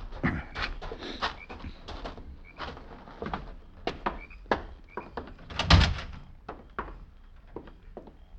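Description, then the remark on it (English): A horse snorts and pants in a barn, a steady run of breathy, huffing bursts with a few heavier thumps, fairly loud, with no one talking. “There's a horse in here.”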